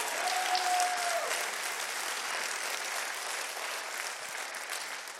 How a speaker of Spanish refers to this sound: Vamos, eso merece un mejor aplauso al Señor.